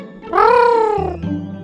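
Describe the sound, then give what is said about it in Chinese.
A giant cat running down a hillside gives one loud, drawn-out meow that rises and then slides down in pitch, followed by a low, steady hum. No one speaks. “啊，原来是一只巨大的猫咪从山坡上跑下来，并且跑向瑶瑶。”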